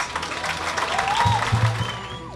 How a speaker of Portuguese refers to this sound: Então uma salva de palmas para eles.